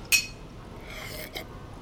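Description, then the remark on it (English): Two glasses clink together once in a toast, a bright ringing chime that fades quickly, followed by a fainter soft knock a moment later amid quiet. “To new friends. Cheers.”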